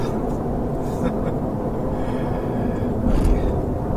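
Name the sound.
car interior road noise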